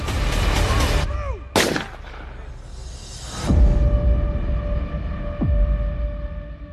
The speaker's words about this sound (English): When he moves unexpectedly, police captain Dumisane Dladla delivers a fatal gunshot to his head.